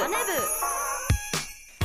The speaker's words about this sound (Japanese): 朝のチャイムが鳴りました